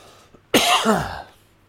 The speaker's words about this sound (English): Excuse me, I'm going to cough for a second.